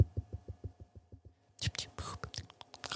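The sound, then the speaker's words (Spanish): ASMR-style whispering right into a microphone as a mic check, breathy and hissing, preceded by a series of soft, evenly spaced low thumps like gentle tapping on the mic. “Haces una SMR y que te responda, ¿se oye la SMR?”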